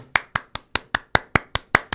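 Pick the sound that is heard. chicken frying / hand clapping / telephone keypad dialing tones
hand clapping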